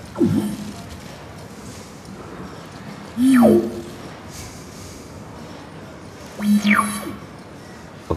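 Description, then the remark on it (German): Three electronic tones, a sonification of a flickering light, sweep steeply downward in a whooping glide, spaced roughly three seconds apart, each loud and brief against a faint hiss, with no talking. “Ist das dein Hui, Hui, Hui? Das, das eine, eine Repräsentation des Flackerns.”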